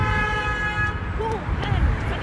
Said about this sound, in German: Also, jetzt sind alle wieder, alle wieder frei und man hört den ganz normalen Verkehr.